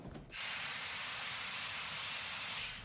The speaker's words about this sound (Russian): Поезд подошел к Н.